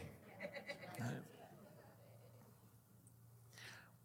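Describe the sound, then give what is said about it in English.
Several people mimic sheep with a burst of short, wavering bleats near the start, overlapping one another, then the voices fade into low crowd murmur and room hum. “Sheep, come on, somebody help me out.”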